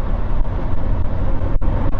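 A steady, fairly loud low rumble of a car driving through traffic, with continuous road and engine noise and no voices.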